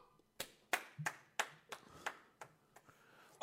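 Hands clap in a loose, uneven rhythm, about nine sharp, bright claps in quick succession, fairly loud against a quiet background with no talking.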